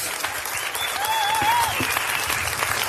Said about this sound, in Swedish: Med de orden vill jag tacka panelen och be om stor applåd för Moa Svan, Judith Kiros, Roger Wilson och Gustav Fridolin.